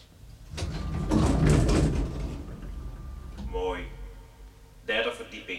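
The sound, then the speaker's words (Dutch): A fingerprint-operated door in an advertising agency's building, opened by laying a right index finger on a red button, opens with a rushing mechanical slide lasting over a second, followed by brief muffled voices and another short burst of noise. “Die deur gaat open door vingerafdrukken.”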